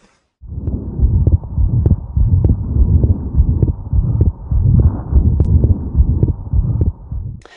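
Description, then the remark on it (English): Steady heartbeat through a stethoscope at the pulmonary valve position (left upper sternal border), low thumping beats at a regular pace with a soft, continuous 2/6 ejection murmur between them, from extra blood flow across a normal pulmonary valve due to an atrial-level shunt. Muffled, no voices. “So you hear a 2 over 6 ejection murmur at the pulmonary valve position, which is the left upper sternal border.”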